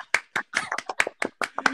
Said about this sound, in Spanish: Líder, un, un, aplauso, líder, un aplauso. Un aplauso, Dios mío.